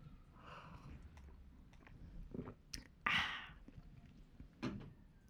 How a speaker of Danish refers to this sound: Nu tager jeg en lille slurk af min aperol.